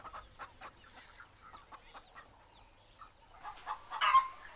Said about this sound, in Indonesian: dua ayam masih ada, sedang makan beras di tanah. Ayam lain datang juga. Ayam kini empat jumlahnya.